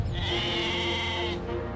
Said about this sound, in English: I think it's a. I mean, I don't know exactly how this happened, but it looks like it's a goat. He's. With its tongue stuck to a firework? He's. I mean, he's way up in the sky.